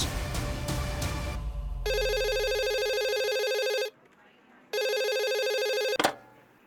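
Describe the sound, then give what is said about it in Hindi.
A telephone rings loudly in two long, buzzy electronic bursts separated by a short pause, following a brief musical opening and ending with a sharp click; an incoming call from SSP Pande. “तभी पांडे का फोन आ गया एसएसपी पांडे माया का बॉस”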